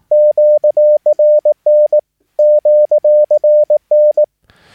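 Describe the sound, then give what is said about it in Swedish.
Steady Morse code beeps in a single mid-pitched tone, short dots and longer dashes keyed rapidly in two bursts separated by a brief pause, spelling QRZ?, meaning "who is calling me?", clean and loud with no voices. “Och eh, vi följer direkt med QRZ? Frågetecken.”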